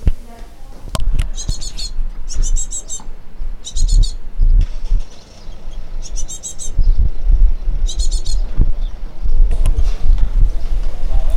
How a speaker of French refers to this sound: Réponse, ce sont des oisillons, des mésanges charbonnières dans le nichoir.